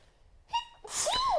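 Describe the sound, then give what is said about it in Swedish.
A single loud sneeze: a short sharp intake of breath, then an explosive burst with a rising and falling vocal squeal. No talking. “Prosit!”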